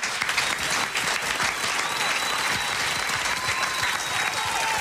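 An audience applauds steadily, dense clapping filling the whole stretch at a loud level with no pauses, a faint whistle-like tone drifting through the middle.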